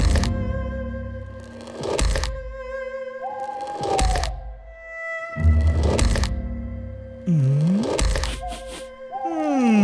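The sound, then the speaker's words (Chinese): In a told story, the Nian monster's heavy, booming footsteps approach a silent village at night from far away, thudding roughly every two seconds and growing gradually louder, over a sustained droning tone with sliding, moaning pitches. No one speaks. “突然，远远的、越来越大声的脚步声传了过来，呃，年兽真的来了！”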